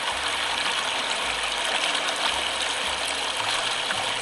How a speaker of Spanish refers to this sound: Bueno, este sonido se llama Piedrecitas en el arroyo.